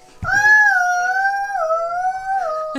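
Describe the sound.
A child's voice imitates an ambulance siren, holding one long, high, wavering note for a couple of seconds. The pitch dips and rises slowly, loud, with no other speech.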